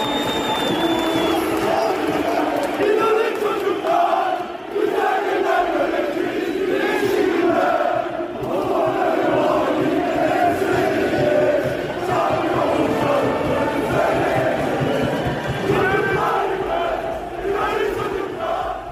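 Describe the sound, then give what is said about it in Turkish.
A large stadium crowd of Beşiktaş supporters chants slogans in unison, "we will see beautiful days, sunny days", while throwing plush toys onto the pitch; a dense, roaring wall of voices that rises and falls in rhythmic waves for the whole stretch, with shouts standing out now and then. “Beşiktaş taraftarı yanlarında getirdikleri peluş oyuncakları elden ele taşıyıp bir yağmur gibi sahaya attılar ve bu esnada çocuklar inanın inanın çocuklar güzel günler göreceğiz güneşli günler diye hep bir ağızdan bağırdılar.”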